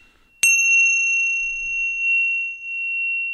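A bell is struck once, sharply, then its clear metallic tone rings on steadily for several seconds, slowly wavering but barely fading, with no voices.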